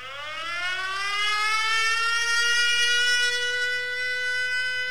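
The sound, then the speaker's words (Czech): An air raid siren alert from a phone app warning of possible danger in Ukraine wails steadily, its tone sweeping upward at the start and then holding a loud, continuous rising drone with no speech. “tak kromě toho že se v Ukrajině rozezní poplach a na veřejném prostranství slyšíte tu sirénu, tak je docela běžné eh, mít o, eh, aplikaci, která vás upozorňuje na to možné nebezpečí a zhruba nějak takhle to vlastně zní, když ten poplach začne.”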